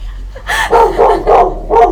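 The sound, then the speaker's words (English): A dog barks four times in a quick, uneven series, loud, each bark sharp with a harmonic tone, over a low steady hum. “That's the dog.”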